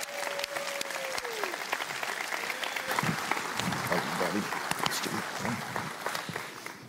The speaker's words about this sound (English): I want us to all give it up for Trip Nine as he comes to share with us this morning